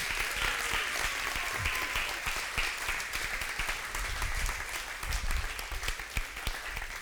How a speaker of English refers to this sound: And uh, how many of you, by a round of applause, think that that should happen?